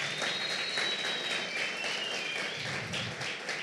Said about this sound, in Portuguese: Olha só, olha, dá, um, dá, um, dá uma salva de palmas para Jesus pela vida deles.